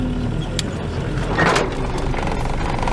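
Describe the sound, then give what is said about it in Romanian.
A vehicle rumbles steadily while driving, and midway a brief, louder creak from the car body rises over the engine and road noise. No one speaks. “Hai, nu se Scărie mașina. Scărie mașina pe tine”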